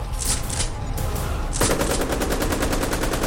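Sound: burst of automatic gunfire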